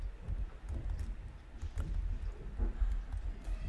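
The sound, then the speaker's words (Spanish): Heavy thuds and rapid footfalls echo as someone runs through the hallways, banging hard. The impacts come in uneven bursts over a low, boomy rumble, with no voices. “No sé si se escucha, pero hay como alguien corriendo por los pasillos, dando unos golpes tremendos.”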